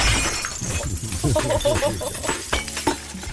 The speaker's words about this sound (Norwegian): Jeg har lyden her av at han eh, rydder ut av ø, oppvaskmaskinen.